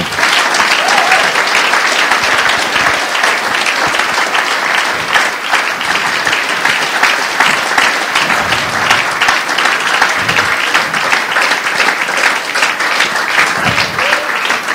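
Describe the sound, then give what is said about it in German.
A large audience applauds loudly and steadily for a woman being introduced, a dense wash of clapping hands with no pause and no voices standing out. “nein, nein, sie hat einen so langen Applaus verdient.”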